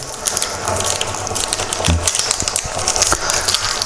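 A coffee pad machine powers up with a steady rushing, watery hiss over a low motor hum, broken by scattered small clicks and rattles. No one speaks.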